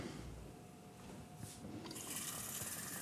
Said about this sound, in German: So, also zwei Heferl Wasser kommen da jetzt rein. Muss da jetzt ein bisschen doof viermal hin und her rennen.